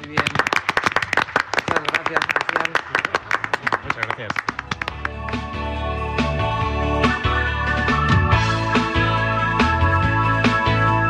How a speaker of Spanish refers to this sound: Chao, chao, y nos damos un aplauso, porque en todos los programas especiales aplaudimos.